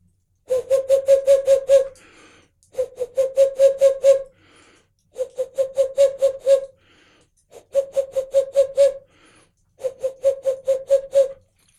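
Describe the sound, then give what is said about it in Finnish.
A hand-whistled imitation of a boreal owl call: five bursts of rapid, steady hoots on one pitch, each run lasting over a second, separated by short pauses, with no talking. “Minä oli helmipöllä”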